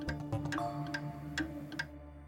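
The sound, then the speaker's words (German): A mechanical clock ticks steadily, several crisp clicks at an even, unhurried pace, over a low continuous hum with no voices. “Um das Jahr 1300 kommen die ersten mechanischen Uhren auf”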